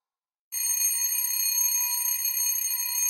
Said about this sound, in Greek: Χτύπησα το κουδούνι της φοιτήτρια στο διπλανό διαμέρισμα και παρά τους φόβους μου η κοπέλα μου άνοιξε.